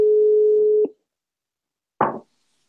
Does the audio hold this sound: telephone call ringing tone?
yes